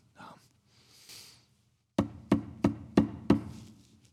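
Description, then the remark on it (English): Five hard, evenly spaced knocks on a piece of wood ring out loud, each with a sharp booming thud, after a couple of brief breathy sounds at the start, demonstrating a police-style knock at a door. “That is a good police knock.”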